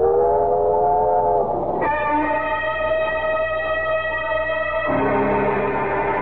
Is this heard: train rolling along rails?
yes